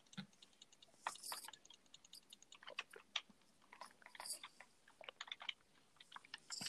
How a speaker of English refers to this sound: I don't know if they could hear me drink that water